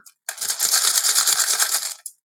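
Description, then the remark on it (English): Dice rattle and clatter inside a mug for about two seconds, a dense, steady jumble of bright clicks, ending with one last knock. “It's the dice that are inside of my Wild Bill's mug”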